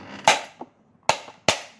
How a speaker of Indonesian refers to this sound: tembak tembakan gas air mata